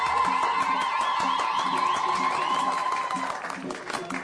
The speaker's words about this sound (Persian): به به به عروس گلی بزن به افتخار عروس خودم